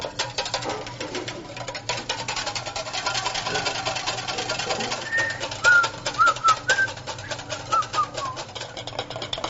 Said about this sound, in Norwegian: Vi begynner å piske eggeplommene med litt av reduksjonen. Ikke alt. Dette her skal piskes til det er skum.